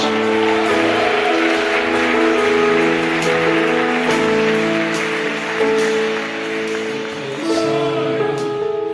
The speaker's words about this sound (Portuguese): Você pode aplaudir a presença dele entre nós?